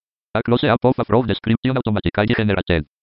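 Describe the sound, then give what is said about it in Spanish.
A synthetic screen reader voice rapidly reads out, in English, a short automatically generated image description, "a picture of a frog", of a photo just inserted into a document. The syllables are clipped and evenly paced, clear, with no other sounds around it. “Entonces me lleva nuevamente al documento, me acaba de insertar la imagen, esa foto, y ustedes pudieron escuchar que en inglés me dijo a picture of a frog uh, automatically generated.”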